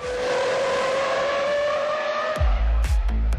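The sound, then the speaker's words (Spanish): A Formula 1 race car engine screams at a high, steady pitch, then sharp bursts and low thumps cut in near the end as it roars past loudly, with no voices. “si eres fan de los autos y la emoción de la Fórmula 1, entonces es momento de vivir cada carrera con la increíble velocidad”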